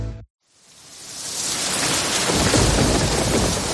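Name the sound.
rain and thunderstorm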